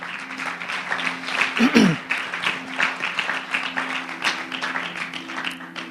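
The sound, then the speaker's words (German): An audience breaks into sustained applause for Jesus, many hands clapping in a dense, steady wash, with a brief voice rising above it early on and a low hum underneath. “Lass mal Jesus einen Applaus geben.”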